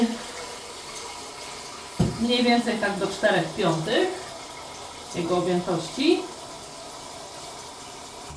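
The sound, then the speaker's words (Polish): Water runs steadily into a cooking pot of about 1.5 litres to make a broth, a continuous splashing hiss throughout, while a man talks over it in two short stretches. “Gdzieś do mm, takiego garnka e, mniej więcej o pojemności 1,5 litra nalewamy sobie wody”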